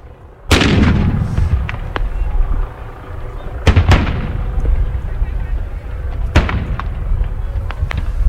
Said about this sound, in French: Très vite, une pluie de grenades lacrymo est envoyée par les flics. Une partie des manifestantes et manifestants, sous le vent, disparaissent dans un épais nuage blanc.